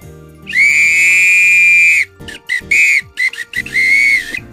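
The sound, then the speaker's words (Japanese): A shrill whistle is blown, first in one long sustained blast, then in a series of short uneven toots, ending with another long blast. “はいこれがふホイッスルこれいいね”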